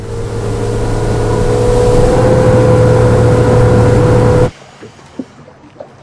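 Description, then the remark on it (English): A motorboat engine roars loudly at full throttle with a steady, droning whine as the driver leans on the throttle and pushes it even harder, then cuts off abruptly to near silence with only a few faint ticks and thumps afterward. “I mean the, the, the speech is there, but it's way below the sound of that boat. And you really do feel that as he leans on the throttle and pushes it even harder.”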